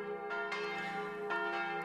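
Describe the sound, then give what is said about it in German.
Three church tower bells ring out in overlapping peals, their rich metallic tones sustaining and blending, with fresh strikes arriving every second or so. Steady and moderately loud, with no voices present. “Wenn im stattlichen Turm die drei Glocken läuten, müsste man sie fast bis ins Salzburgische hören.”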